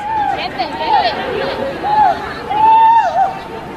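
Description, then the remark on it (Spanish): A female referee cries out in pain several times after being hit by a ball during a Real Madrid football match: high, drawn-out wails rising and falling over about four seconds, heard above the steady murmur of a crowd. “Escuchen los gritos de dolor de la árbitra.”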